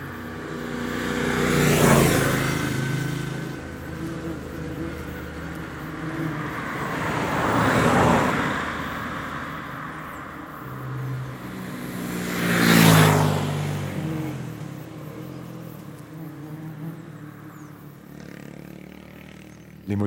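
Motorcycle engines heard from the valley swell and fade three times in about twenty seconds, each roaring pass rising then trailing off, with a steady low traffic rumble in between and no clear talking.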